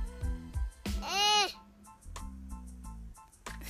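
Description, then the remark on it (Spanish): A baby girl, the speaker's niece, babbles in a run of short, high-pitched vocal bursts, with one longer warbling squeal in the middle, then more scattered babbles and coos. “porque yo tengo la idea firme de que todos tenemos algo que decir, como mi sobrina en este momento.”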